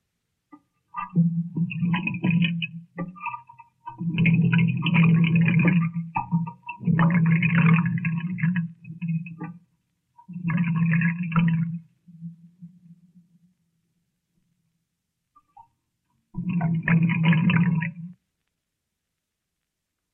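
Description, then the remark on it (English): Water run through a piece of ordinary pipe and amplified by a sound microscope gurgles in five loud bursts of low, bubbling rumble, each lasting a second or two, separated by short silences, with no voices. “way we made that one was to run some water through a piece of ordinary pipe and let the sound microscope listen to it.”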